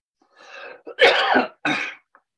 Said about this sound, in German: Ich hört ihr meinen Husten? Ja, ja, das hören wir gut.